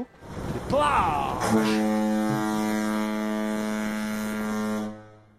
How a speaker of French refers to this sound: La corne de brume est lancée.